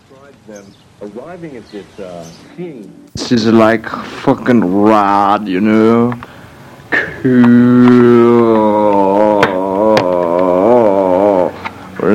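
A lo-fi home recording from a posthumously released album: a quiet murmured vocal passage gives way to a loud voice singing long, wavering, sustained notes, with no clear instruments behind it.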